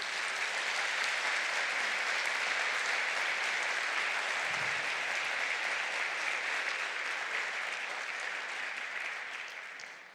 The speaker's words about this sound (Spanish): Dele un fuerte aplauso al Señor entonces.